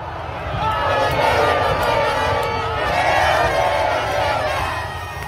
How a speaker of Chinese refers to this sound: 十二月二十号，阿根廷队的队长梅西和他的球员搭上敞篷巴士，在市区街头游行。当地媒体估计，现场有四到五百万人涌上街头，有的爬上桥、攀上路牌，还有人爬到树顶，就是想亲眼看看阿根廷的骄傲。我们听听来自现场的声音。